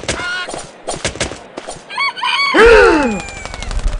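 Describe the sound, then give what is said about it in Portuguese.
A rooster squawks and clucks in agitated bursts during a cockfight, as one rooster leaps into the air and lands a killing blow, building to a loud, harsh, drawn-out screech near the end, frantic, with scuffling noise around it. “Perninha Santa novamente ergue-se no ar e aplica um mata-galo no Washington”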